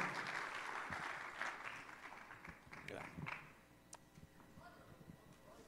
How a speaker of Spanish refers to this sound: Y bueno, denle un aplauso al Señor para recibir la palabra. Amén.